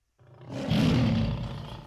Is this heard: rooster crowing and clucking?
no